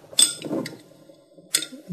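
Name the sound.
glass jar clinking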